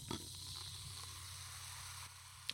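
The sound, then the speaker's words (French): A faint, steady fizz of sparkling sake bubbles hisses continuously, close to the mic, with a low background hum and a single small tick near the end. “Je ne sais pas si vous entendez les petites bulles au micro, mais on, essaiera de faire notre possible en capacité de compétences de montage pour faire ressortir ça.”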